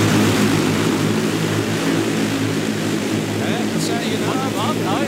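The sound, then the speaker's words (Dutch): A drone buzzes loudly and steadily overhead, its whirring propeller drone holding a constant pitch throughout, with faint voices briefly audible beneath it near the end. “We hebben een voorbeeld van hoe zo'n drone kan klinken, hè,”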